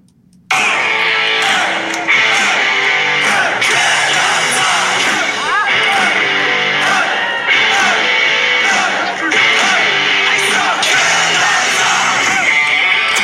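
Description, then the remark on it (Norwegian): A loud, dense wall of excited yelling and whooping from a rock concert crowd, sustained for the whole stretch with raucous shouts rising over a roaring, music-filled backdrop. “sånn høres det i hvert fall ut når … og jeg er på …”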